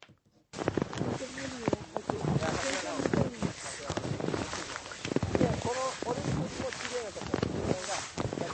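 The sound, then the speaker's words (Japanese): Snowshoe footsteps squeak and crunch on fluffy powder snow in a steady walking rhythm, each step giving a loud, chirping squeak, with a brief voice near the start. “このふわふわの感じって、うん、うん、歩いてみるとほとんど音がしないんですけど、スノーシューで歩くとこんな感じの音なんですよ。”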